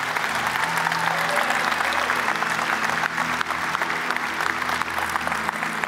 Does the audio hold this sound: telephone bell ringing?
no